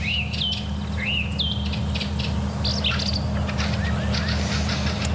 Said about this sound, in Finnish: Tämä laulurastas on sellainen, joka monesti sekoitetaan satakieleen. Joo, monasti nämä kevään ensimmäiset kielet, joita kuullaan, niin osoittautuu oikeasti laulurastoiksi. Tämähän on hieno laula ja voimakas laula